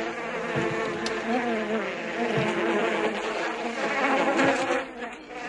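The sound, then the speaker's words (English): A green biting horsefly buzzes steadily, a continuous droning hum that wavers in pitch as it moves, lasting several seconds with no voices. “No, and that wasn't just the house fly. That was those those green flies that bite. Yeah, horsefly, oh, like horseflies, yeah.”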